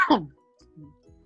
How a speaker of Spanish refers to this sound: Según yo estaba poniendo mute para toser, pero creo que quité la cámara, no sé.